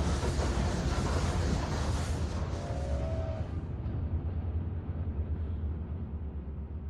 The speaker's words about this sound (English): The ground began to shake, and light began to well up and glow and then blast from the handsome man's eyes, mouth, and throat as the sound of a passing train roared through Big Gap Hollow.